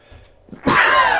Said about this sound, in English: I have a sneeze coming, so it might come in the middle of my sentence.